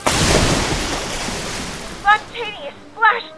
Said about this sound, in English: And so the plane sailed right over the small fishing boats. And crashed down into the harbor.